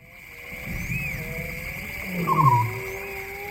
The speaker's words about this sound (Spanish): el ambiente de la noche africana. Es, una discoteca esto, ¿no? Está cuajado de voces, ¿no? Vimos eh, anfibios, insectos que no sabrían nombrar, las hienas llorando o lamentándose. Y estos rugidos aquí en primer término del león.